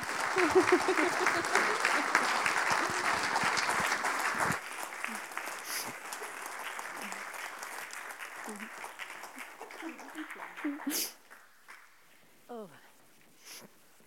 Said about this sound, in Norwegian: Dere, vi gir henne en klapp.